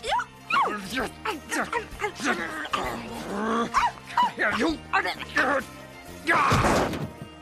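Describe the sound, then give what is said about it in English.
A voice actor voicing a dog character imitates a dog, firing off a quick string of yips, short barks and high, wavering whimpers, then finishing with a rough, breathy rasp. “And it was really fun to finally get to put all these weird noises that I hear in my house all day to some use.”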